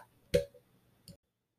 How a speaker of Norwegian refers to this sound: For å få det til holdt han kompasset i håndflaten og begynte å vri på tallskiva. For hver ørlille bevegelse lød et klikk.